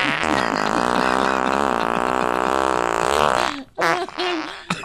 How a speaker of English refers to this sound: It's labeled elephant fart. I don't think there's a bigger one on planet. I think it's good. Is that really an elephant? oh, yeah. Yeah, definitely.